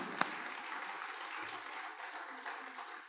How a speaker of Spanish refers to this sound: Bien hecho. Dense un aplauso a ustedes mismos.